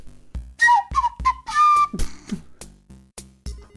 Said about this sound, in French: ok, on est sur une, euh, flûte Oui, une flûte à bec en bois.